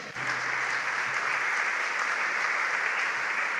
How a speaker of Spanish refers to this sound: Yo te invito a que le des un fuerte aplauso.